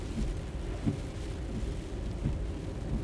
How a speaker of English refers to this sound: Did you feel the rain on the window pane?